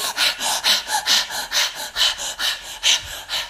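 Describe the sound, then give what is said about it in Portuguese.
Rapid, forceful breathing during a chaotic breathing exercise, about nine sharp huffing breaths in quick, fairly regular succession, loud and breathy with no talking. “Por isso é que você precisa ficar em pé para deixar sair via movimento físico, hoje a respiração será caótica.”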